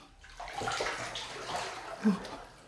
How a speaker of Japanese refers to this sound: よく見るとバスタブに水が溜まっていて水面が揺れています